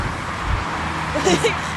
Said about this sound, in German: Da ist ein Auto gewesen.